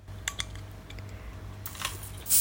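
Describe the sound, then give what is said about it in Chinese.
A wine bottle being opened: a few small, sharp clicks and some scraping over a low steady hum, ending in a brief, bright burst of hissing noise. No one speaks. “等一下，我来，我我我来试试能不能收到这个开瓶子的声音。”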